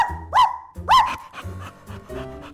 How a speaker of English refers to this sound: And we've a brand new cockapoo puppy.